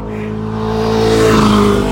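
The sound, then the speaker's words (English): Motorcycle engines rev outdoors, a steady harmonic drone that swells louder and shifts pitch as they pass, with no one talking. “Y'all hear the motorcycles and the dogs, and the people.”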